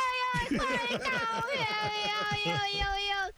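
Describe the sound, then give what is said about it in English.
A person imitates a cat's meowing as part of a comedy act, a loud, continuous run of whiny, warbling vocal yowls with rapidly wavering pitch lasting a few seconds. “I do that cat noise in my act.”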